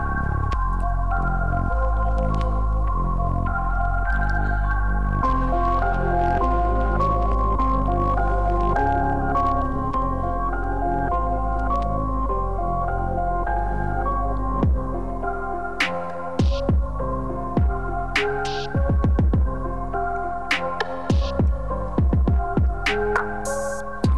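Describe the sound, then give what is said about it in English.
A hip-hop beat with sustained tones and a heavy bass underneath, then punchy kick drum hits enter about two-thirds in, thumping in a steady rhythm. Loud, with no voices. “I think when the kick first came in, I was it's a little, little unsure. But then, like when he brought everything else in, I fucked with I wish the bass was up a little more too.”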